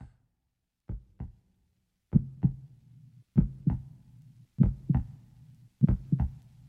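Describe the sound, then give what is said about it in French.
A heartbeat-like rhythm during the break of a dance track: thudding paired low beats, lub-dub, repeating steadily over a sustained low bass hum, growing louder as the pattern continues, with no voices. “Pendant le break, il y a une rythmique qui imite un battement de cœur.”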